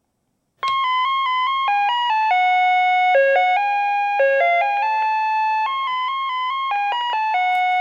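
A vehicle's electronic reversing chime plays a bright, beeping Beethoven melody of steady, evenly held notes, loud, running continuously without any voices.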